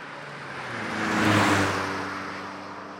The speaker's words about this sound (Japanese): 片倉は、俊敏に、 そして軽快に車を走らせる。